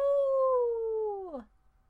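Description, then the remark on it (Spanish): A human voice imitates a wolf howl: one long, steady, mournful tone that slowly sinks in pitch, then drops away sharply at the end, heard alone. “Y un wolf o lobo dice au,”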